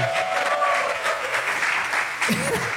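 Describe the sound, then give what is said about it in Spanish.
An audience bursts into sustained applause for two audience members who came from Monterrey, a dense, steady clatter of many hands clapping for a few seconds, with some voices and cheers mixed in toward the end. “No, quiero que les den un aplauso muy cabrón a ellos dos porque vienen desde Monterrey.”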